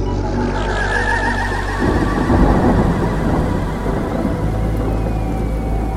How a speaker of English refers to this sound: It started raining hard. Nice. How fitting. Even the sky is crying, I thought to myself.